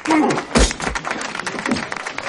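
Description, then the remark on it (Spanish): Steady applause as Oscar claps at a Jewish wedding, a dense crackle of clapping hands, with a heavy thud early on and faint voices mixed beneath it. “Oscar aplaude.”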